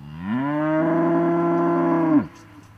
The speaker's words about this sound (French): J'écoute brouter à l'upetière l'imbécilité de l'herbe, l'intelligence de l'herbe, les lentes bêtes brouteuses, rien, le temps, les vaches,